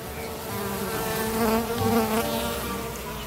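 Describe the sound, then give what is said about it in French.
A honeybee buzzes steadily, a continuous droning hum that wavers slightly in pitch and loudness over a few seconds, with no voices. “Tu te demandes sûrement du coup quoi faire si tu vois une abeille.”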